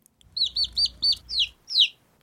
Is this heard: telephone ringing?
no